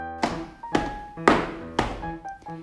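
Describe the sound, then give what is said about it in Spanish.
An elephant stomps its foot on the ground to count out beats: four heavy, booming thuds in a steady rhythm, each ringing out briefly, followed by a couple of lighter knocks. No one speaks. “Puedes hacer así con la pata y contar hasta tres dando golpes en el suelo?”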